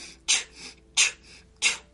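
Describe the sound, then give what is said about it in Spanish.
Three sharp, forceful breaths in a quick, steady rhythm, fairly loud, with softer airy intakes between them as someone does a paced breathing exercise, inhaling through the nose, exhaling through the mouth and contracting the stomach, repeated 14 times while looking to one side; no talking. “Entonces inhalas por la nariz, exhalas por la boca y contraes el estómago.”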